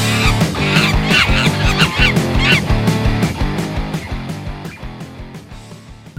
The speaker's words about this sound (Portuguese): Então chama a vinheta